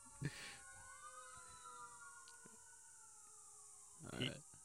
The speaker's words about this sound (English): And um, uh, damn sirens.